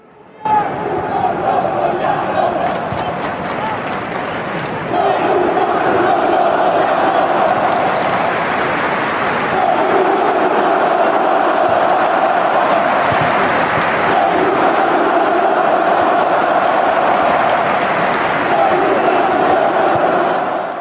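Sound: football crowd chanting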